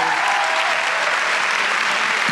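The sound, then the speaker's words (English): An audience applauding a panel of guests in the morning, a dense, even wash of many hands clapping steadily at a constant loud level with no voices standing out. “Let's give them a nice round of applause for being here this morning.”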